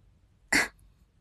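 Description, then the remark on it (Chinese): A man's single short, sharp cough, a brief throaty burst lasting about a fifth of a second, heard on its own against a quiet background with no talking. “…咳嗽一声”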